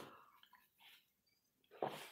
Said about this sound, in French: Hein, je prends une petite gorgée, excusez-moi.